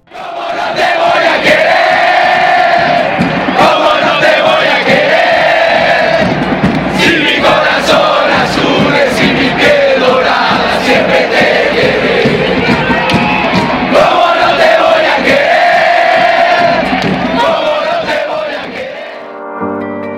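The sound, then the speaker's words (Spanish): A large football crowd chants in unison, a loud, sustained roar of voices rising and falling in rhythmic waves for about twenty seconds before cutting off abruptly. “Sale del corazón, se desborda por la garganta y se transforma en un canto, en una frase que rompe las fronteras, cruza los océanos y se queda para siempre en las entrañas del fútbol mundial.”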